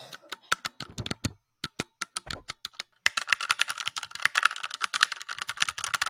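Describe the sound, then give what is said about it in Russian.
Sharp, clicky keystrokes tap out an uneven rhythm, then speed into a dense, rapid flurry of typing on a loud mechanical keyboard. No voices are heard. “Ну, э, громкий сосокликающий звук прям. Давай, постучи, по покликай.”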